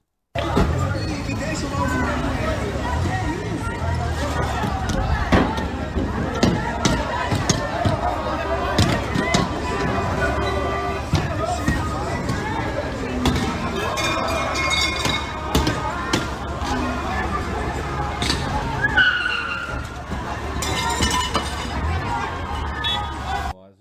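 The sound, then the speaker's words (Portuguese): A group attacks a car at a street corner of Alameda Notman with Rua Conselheiro Nébias and Rua Guaianazes, breaking windows and robbing the driver, amid constant loud bangs, thuds and clinks of glass over agitated voices; near the end a car skids away. “a gente separou um vídeo do exato momento em que um carro é atacado.”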